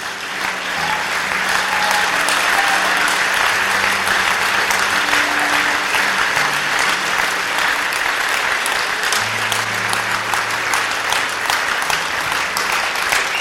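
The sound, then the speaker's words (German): Sustained audience applause for a male speaker, a dense steady wash of many hands clapping at an even loudness for over thirteen seconds, with faint voices murmuring underneath. “Aber vielleicht geben wir ihm mal einen warmen Applaus.”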